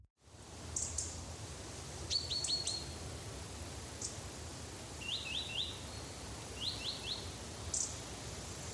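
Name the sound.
birds singing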